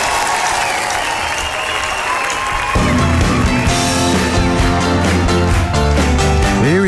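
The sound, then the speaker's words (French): A live rock concert moment by an American rock band: loud crowd applause and cheering for a few seconds, then the band launches into a song while the audience noise carries on underneath the music. “là c'est une version live qu'on entend.”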